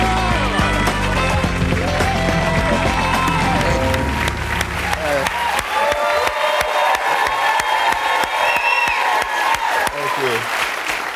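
A studio audience applauds and cheers loudly and steadily as actor Brian Tyree Henry is welcomed as a guest on a talk show, dense clapping with scattered whoops and a band playing underneath at first, the music dropping away after a few seconds while the applause continues.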